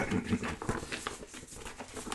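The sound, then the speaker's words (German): Paper rustles and crinkles continuously for a couple of seconds as a sound effect in a radio play, a dry, crackly shuffling with irregular bursts, moderately loud and without any voices. “Sound räuspern und Papierrascheln.”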